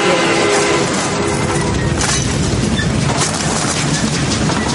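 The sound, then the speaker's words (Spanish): The Trans-Siberian train roars through a tunnel at night, a dense, steady rumble with rattling metallic clatter from the wheels and cars, loud and continuous throughout with no voices. “De noche el ferrocarril atraviesa un túnel y se detiene en una estación.”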